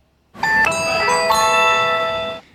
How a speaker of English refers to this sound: We're of course talking about that incredible tone you get when you scan your magic band as you're entering the Magic Kingdom.